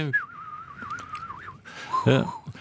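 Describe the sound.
A person whistles to imitate a bird's wailing call, a long, wavering tone that slides up and down, then a brief voiced sound cuts in before the whistle resumes faintly.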